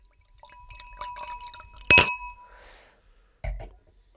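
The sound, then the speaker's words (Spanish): Golden-yellow wine is poured into a glass for a blind tasting with a soft gurgling trickle and a faint ringing tone, followed by a sharp glassy clink and another light clink a moment later. “Espérate, lo eh, voy a pegar sirviendo. al. Venga, que se escuche, que se escuche. micrófono que me gusta escucharlo.”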